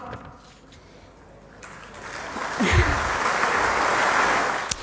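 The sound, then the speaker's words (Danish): Applause from an audience after a speech rises after a brief, thoughtful pause, growing into a steady, dense wash of clapping that fills the second half and stays moderately loud. “Ja, altså noget af det væsentligste, kan man sige, ved den her tale, er jo det bifald, som der sådan set kommer efter en lille tænksom pause her bagefter.”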